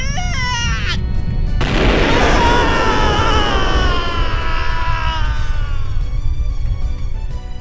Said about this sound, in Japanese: 剣に集めた魔力が重すぎてもうバランスが取れないどんどん大きくなってますよおのれ我らを道連れにするつもりかそんなこと言われたってこれどうやって小さくするのか知らないもん嘘だわもうもうダメだ爆発する